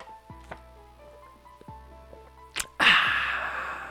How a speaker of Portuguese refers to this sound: Eu queria começar falando, cara, que hoje eu bebi o meu primeiro gole de água, inclusive eu vou dar um gole de água agora.